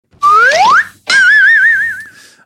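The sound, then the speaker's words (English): A slide whistle swoops upward in a quick rising glide, pauses briefly, then sounds a long wobbling tone that sags slightly in pitch before fading. No one speaks over it. “S- uh, slide whistle?”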